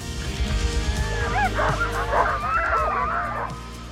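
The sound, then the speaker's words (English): A pack of sled dogs on a dog sledding outing in Alaska, recorded on an iPhone, yips, barks and whines excitedly, their high overlapping cries forming a frantic chorus over a steady low rumble, swelling midway and then tapering off. “We were hiking through the woods, we were snowmobiling, saw moose, we went dog sledding”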